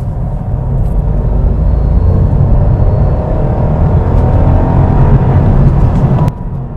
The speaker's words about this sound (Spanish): Ahí está el corte. ¿Lo habéis oído? Vamos a oírlo otra vez. Ahora en tercera. Ahora ya un poco más matizado por el ruido de rodadura. Pues este es el motor de tres cilindros de Honda, el que lleva el Honda Civic, el 1.0